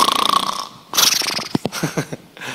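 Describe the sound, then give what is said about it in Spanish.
A voice imitates snoring: a loud, rattling buzz of an inhale, a breathy rush of air, then a few short snorting puffs. “… estaba roncando.”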